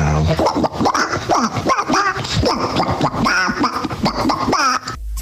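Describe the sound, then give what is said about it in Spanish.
A man gives a loud imitation of a cartoon duck voice: a continuous raspy, sputtering, quacking babble lasting about five seconds, with no clear words. “ojo cómo hace el padre de Charlie al Pato Donald”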